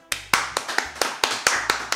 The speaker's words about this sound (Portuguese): Palmas?